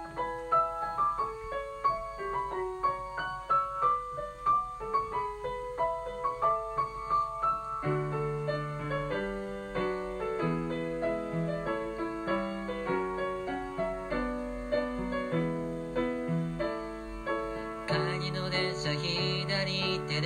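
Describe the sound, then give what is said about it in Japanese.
An instrumental intro of a newly written, self-composed song plays on its own with no voices, a bright melodic line over steady chords at a moderate, even pulse, fuller and brighter near the end. “新しい曲ができたので聴いてください。”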